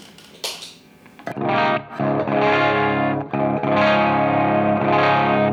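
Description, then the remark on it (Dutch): A heavily distorted Les Paul electric guitar plays sustained, thick chords with a few brief breaks, loud and saturated with a sweet, warm character and some brightness, with no talking over it. “wat sowieso wel heel erg opvallend is met al die Les Pauls, is dat je wel echt karakter hoort, zeg maar.”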